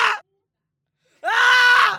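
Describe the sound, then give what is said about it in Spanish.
A person lets out a single loud, drawn-out anguished scream, a bellow from deep within, strained and sustained for under a second, after a short vocal fragment and a brief silence, voiced as a dramatic imitation. “Fue en ese momento que pudo gritar, un bramido que emergió de lo más profundo de su ser.”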